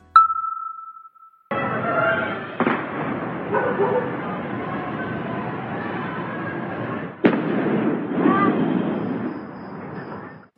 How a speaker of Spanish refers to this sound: Así se escucharon los disparos y explosiones tras el incendio de Bin, una prisión de Irán conocida por refugiar presos políticos.